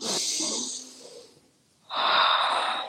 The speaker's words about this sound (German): Und wenn wir einfach nur dieses Bewusstsein haben, dass ich sage das auch immer allen, wenn du allein nur diese eine Sache mitnimmst aus der Session, dass nächstes Mal, wenn du dich aufgewühlt fühlst, du durch die Nase in den Bauch atmest,